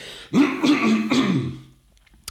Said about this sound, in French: J'ai ma voix qui part en live, donc je vais juste tousser, bougez pas.